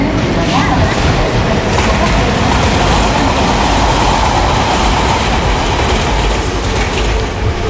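A TER regional train rolls past with a loud, continuous rumble and metallic rattling of wheels on track, the dense roar holding steady for the full length without letup.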